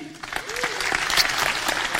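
A crowd applauds steadily, with dense overlapping claps filling the room at a lively, sustained level and no voices rising above it.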